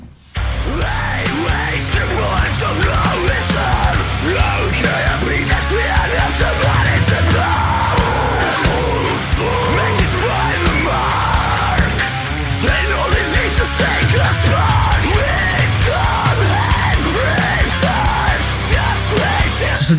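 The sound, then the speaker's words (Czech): A loud, full band song plays throughout, with heavy bass, dense drums and guitars, and a strained, energetic lead vocal singing in English over the top. “Eh, já mám to pocit, že zpívá anglicky, takže mm-hmm.”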